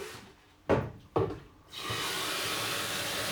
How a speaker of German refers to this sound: Altbekannt, dieses Geräusch. Der Wassertank wird aufgefüllt.